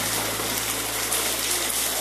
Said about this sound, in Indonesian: Saya di teras rumah, walaupun sudah saya kasih awning sedikit, memang agak tinggi karena konsepnya minimalis. Ya masih ada tempias-tempias sedikit lah. Tapi nggak apa-apa, kita nikmati aja tempias air hujan.